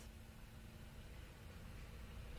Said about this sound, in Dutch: Er komt een vrachtwagen voorbij, maar dat gaan we gewoon even laten.